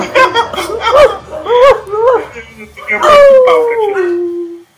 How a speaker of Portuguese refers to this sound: Pera, pera um tempinho aí, mano. Se os cachorros parar de latir aqui, cara. É que inferno. Que inferno, mano.